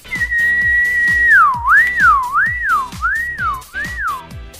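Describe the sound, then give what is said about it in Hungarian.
A whistled imitation of a passing car, made as a sound effect for listeners in a Style FM radio broadcast: one high tone held steady, then swooping up and down in repeated waves, over a steady, rapid thumping beat. No talking. “Ez egy elhaladott autó volt.”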